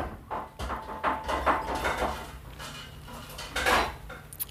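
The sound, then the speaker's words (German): A meal tray is passed through the lower hatch of a cell door, with clattering dishes and scraping, several sharp knocks and rattles over a few seconds, moderately loud with no talking. “Ah, es wird unten durch die Luke, durch die Zellentür gereicht.”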